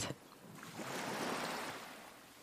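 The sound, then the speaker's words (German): Ocean waves wash in at night with a soft, broad hiss that swells and then slowly recedes, a steady surf sound heard on its own at a gentle, moderate level. “Und wie das Geräusch der Wellen dich immer weiter entspannt.”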